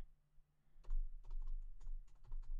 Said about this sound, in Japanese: 例えばキーボードの音とかって、多分結構入っ、もともとの MV7 だと結構入ったと思うんですけど、今こうやって叩いてて、